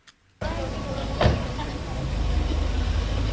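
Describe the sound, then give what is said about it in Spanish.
Steady low rumble of heavy street traffic in Mexico's capital as students return to school, with idling and passing engines, a brief sharp clunk partway through, and indistinct voices faintly mixed into the continuous noise. “de estudiantes en México regresaron a clases presenciales por primera vez desde que suspendieron debido a la pandemia hace más de dos años y lo hacen con mucho tráfico en la capital y con nuevas medidas sanitarias,”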